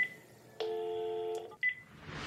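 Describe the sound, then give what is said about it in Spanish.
Electronic telephone tones from dialing a keypad to call a family: a short high beep, a longer buzzy tone lasting nearly a second, then another brief beep, ending in rising hiss. No one speaks. “por eso es que les estoy marcando”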